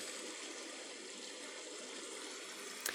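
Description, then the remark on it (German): A steady, even hiss of recorded rain sounds played from an app fills the whole stretch without pause, soft and continuous, with one small click near the end and no voices. “Wir hören gerade Regensounds.”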